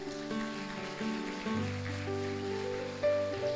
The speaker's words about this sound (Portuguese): Você pode dar um aplauso a Ele por isso.